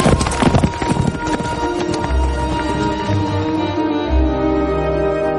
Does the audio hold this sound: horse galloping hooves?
yes